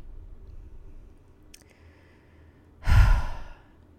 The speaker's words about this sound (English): I'm sorry for for breathing into mic into the mic like that. Um, I'm really trying to get a lot better with my mic and voice control, you know.